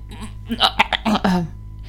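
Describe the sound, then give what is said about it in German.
A voice imitates a child gagging, a quick series of harsh, throaty retching bursts building into a longer strained heave, fairly loud, with no words spoken. “Und ja, Kinder würgen, Kinder würgen manchmal, wenn es zu viel war. Die kriegen dann bisschen rote Augen, machen komische Geräusche und machen ein.”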